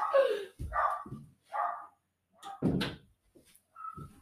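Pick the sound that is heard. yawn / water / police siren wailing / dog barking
dog barking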